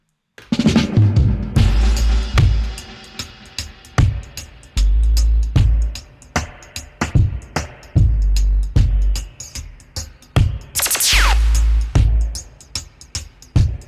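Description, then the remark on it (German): An energetic music track with a heavy, booming bassline and punchy drums driving a steady, loud beat, with a rising synth sweep partway through. “Äh, es gibt Bassline für Dreier und wir hören zusammen rein.”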